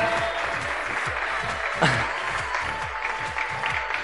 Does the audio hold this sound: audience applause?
yes